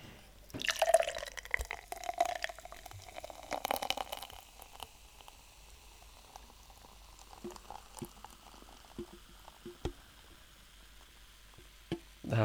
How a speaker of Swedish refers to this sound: Vad konstigt intensivt var det. Upphällning av en öl. allting bara stannar upp.